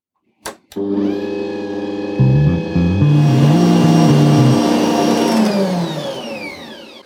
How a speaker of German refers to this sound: Erst auf kleiner Stufe, dann auf hoher Stufe und dann hören wir uns gleich wieder, wenn die Küchenmaschine fertig ist.